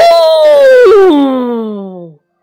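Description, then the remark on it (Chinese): A voice imitates a Tyrannosaurus roar: one long, loud, harmonic cry lasting about two seconds, starting high and sliding steadily down in pitch with a brief wobble midway, then cutting off. “霸王龙发出了恐怖的咆哮，一把从戈尔刚龙手中抢回了甲龙宝宝”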